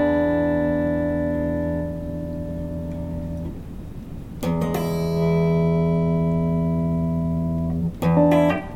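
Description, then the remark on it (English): Clean electric guitar chords ring out through an amp, warm and clear, with a long sustained chord fading before two fresh strums. No one talks. “But, but it's just it's so smooth, and as you can hear, there's you know, there's really beautiful clarity through this amp, nice warmth”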